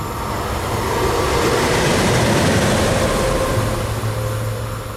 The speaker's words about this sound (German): Wir kriegen nochmal einen Zug.